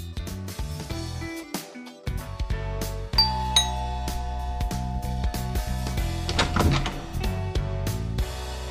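doorbell ringing

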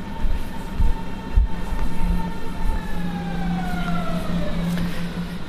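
S-Bahn commuter train

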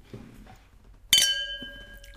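wine glasses clinking

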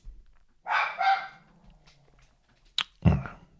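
dog barking excitedly

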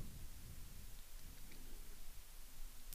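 sea waves

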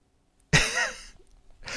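blowing nose

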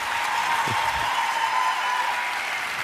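audience applause

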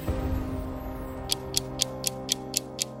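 clock ticking

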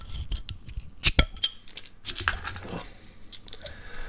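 beer bottle being opened

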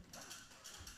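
creaking chair

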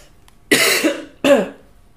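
coughing

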